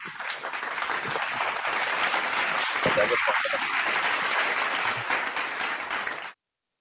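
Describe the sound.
A crowd applauds steadily for about six seconds to welcome guests onto a program, a dense, even wash of clapping with a brief voice calling out partway through, before the applause cuts off abruptly.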